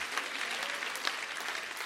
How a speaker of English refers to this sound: Would you stand all over the house? Clap your hands for the word today. Clap your hands for the word today. Clap your hands for the word today.